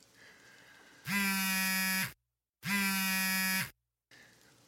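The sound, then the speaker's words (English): Bear King's phone gives a text message alert, buzzing twice, each loud, harsh, low-pitched buzz lasting about a second with a brief silent gap between, over a faint steady background hum. “went Bear King's phone.”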